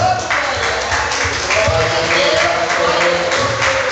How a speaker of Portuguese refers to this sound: Desocupe as suas mãos e vamos dar uma linda salva de palmas à palavra do Senhor